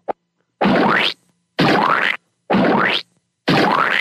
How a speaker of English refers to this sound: By the way, I want to point this out that I got my my jizz splooge sound effects back.